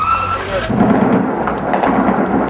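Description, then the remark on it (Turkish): Gunfire from clashes between the Free Syrian Army and Assad forces in Resulayn, just beyond the border fence separating it from Ceylanpınar, Turkey, crackles in a rapid string of sharp reports over a loud, rumbling wash of background noise, with no talking. “Şu anda silah sesleri çok net bir şekilde duyuluyor.”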